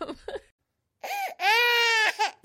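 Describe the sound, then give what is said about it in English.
A baby cries: a couple of short fussy whimpers, a brief pause, then a loud, drawn-out wail that breaks off into another sob. “Sounds familiar? If your baby is going through another bout of bad diaper rash”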